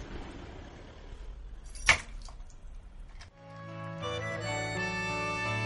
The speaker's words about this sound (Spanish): démosle llave a la puerta.